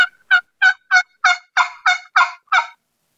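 A turkey calls in a steady run of about nine raspy, evenly spaced yelps, each short and loud, growing slightly stronger toward the middle before the series stops, with no talking.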